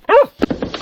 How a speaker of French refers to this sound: Ah, on a frappé à la porte là